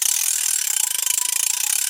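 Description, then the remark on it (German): The ratchet of a 7000C fishing reel clicks in a rapid, steady buzzing run for about two seconds: bright, dense, high-pitched ticks, fairly loud, with no voices. “Das ist eine Knarre von der Rolle macht dich wahnsinnig.”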